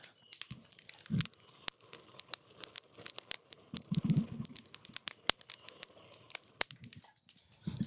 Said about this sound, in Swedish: Gud vad elden låter mycket nu. Jag ska se om jag kan lyckas fånga lite av det.